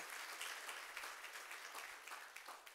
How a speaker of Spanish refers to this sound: Dele el aplauso al Señor.